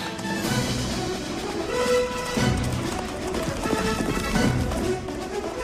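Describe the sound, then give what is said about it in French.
A horse-drawn stagecoach gallops along, with a steady, loud clatter of hoofbeats and rumbling wheels filling the whole stretch, dense and continuous throughout. “Désolé de vous quitter, mais notre diligence arrive”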